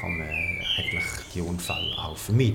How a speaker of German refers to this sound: Also wir befinden uns im Fall nicht im Vogelhaus. Man hört auch die Vögel wirklich von draußen rein zwitschern.